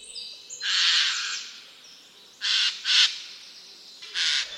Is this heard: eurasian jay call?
yes